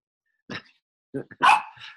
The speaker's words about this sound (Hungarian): Kutya már van, hallod.